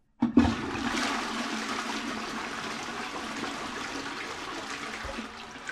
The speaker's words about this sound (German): Jedes Mal, wenn wir die Wasserspülung betätigen, im Glauben, eine hygienische Handlung zu vollziehen, verstoßen wir gegen kosmische Gesetze, denn in Wahrheit ist es eine gottlose Tat, eine frevelhafte Geste des Todes.